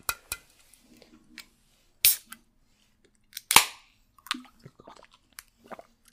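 Drinking sounds: a big swallow or two with sharp wet clicks and smacking mouth noises, loud, spread over a few seconds with no talking.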